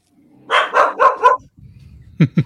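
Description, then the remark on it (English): Guard dogs bark: four quick, loud barks in a rapid burst, a short pause with low rumbling, then three sharper yelps, no talking. “crap, the guard dogs found us.”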